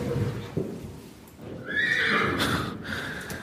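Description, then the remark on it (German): A nervous mare lets out a loud, shaky whinny that rises and trembles for a couple of seconds, preceded by low snorting and shuffling sounds. “hat mir von diesem Pferd vorgeschwärmt.”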